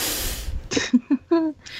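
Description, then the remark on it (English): A voice mimics a blast of compressed air and water spray as on Universal theme park rides, with a loud, breathy hiss of about half a second, followed by a few short, voiced vocal sounds. “You do a thing, everything goes wrong, you're going to die, and we blast you with compressed air and water.”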